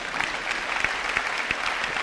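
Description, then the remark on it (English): An audience clapping their hands, a dense, steady patter of many claps blending into continuous applause at a moderate level, with no voices standing out. “Somebody clap your hands and say, Thank you, Jesus.”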